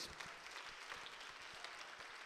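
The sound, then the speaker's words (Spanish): A crowd applauds steadily at a church service, giving applause to the Lord: a dense wash of many hands clapping at a fairly even level throughout, with no voices standing out. “Dele otro aplauso al Señor y día gloria a Dios.”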